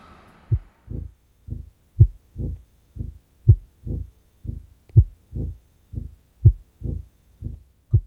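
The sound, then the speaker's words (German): A pounding heartbeat, after running to catch a bus, thumps steadily in low, muffled double beats, about two per second, strong and regular with no voices over it. “Und dann hat mein Herz immer so.”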